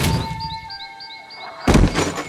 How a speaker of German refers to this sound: Im Gegenteil, er wummerte so fest gegen die Wände seines Gefängnisses, dass der Riss noch ein bisschen tiefer wurde.